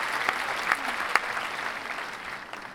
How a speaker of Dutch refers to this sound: Graag nog een applaus